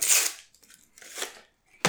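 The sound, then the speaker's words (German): Crinkling and rustling of a card game's packaging being unpacked, in three quick bursts: a long rustle, a softer tearing scrape, then a sharp crackle at the end. No one speaks. “ich pack's jetzt aus.”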